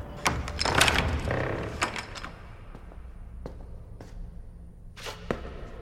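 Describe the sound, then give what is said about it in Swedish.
The metallic rattle of a large iron key as a prison caretaker unlocks the gates, with a burst of scraping and jangling, then several sharp, sparse clicks and clanks of the gate's mechanism spaced out over a quiet background. “Med en stor nyckel i järn låser han upp och leder oss in i den mörka byggnaden.”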